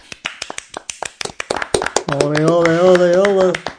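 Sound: small group applauding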